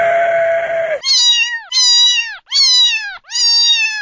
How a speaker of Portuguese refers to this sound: Ops, calma. Leão não. Gatinho.